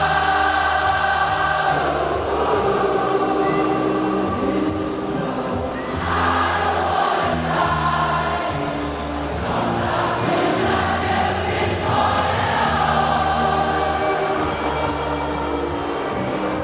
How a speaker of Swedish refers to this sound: utan att någon ber dem göra det så börjar hela publiken, 65 000 människor, sjunga med i …